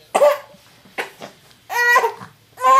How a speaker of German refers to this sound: Und schreiendem Baby. Ja, warte, der Schnuller ist hier.